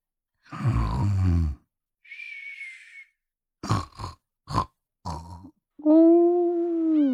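Snoring from a person asleep on a reclining chair: a rough, rumbling snort, then a thin high whistle, a few short choppy snorts, and finally a long moaning, groan-like drone. No one speaks.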